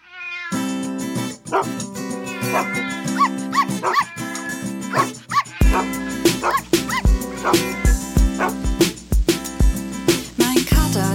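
Short, yappy dog-like barks and meow-like calls pop out over a bright, busy children's song, with a steady beat coming in partway through and carrying the barks along.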